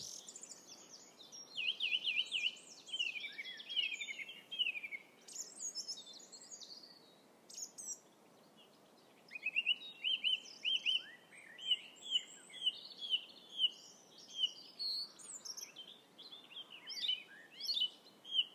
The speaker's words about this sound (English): The bird that's making perhaps the loudest noise that you can hear over the microphone. It's probably no more than 25 metres away from me, but I feel like it's pounding in my eardrums.